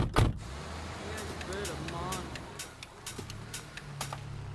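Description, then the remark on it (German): A Mercedes SLK drives along on a trip through Germany, with a steady, low engine and road rumble, opening with a sharp thump. Faint voices and occasional small clicks come through over the hum. “Die beiden Künstlerinnen begeben sich weiter mit ihrem Mercedes SLK durch ihre Deutschlandreise.”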